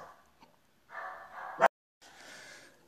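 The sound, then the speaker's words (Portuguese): A female dog gives a few low, whiny vocalizations that build into one sharp, loud bark, then a brief silence and a softer, rougher grumble. “E minha cachorra mandou calar.”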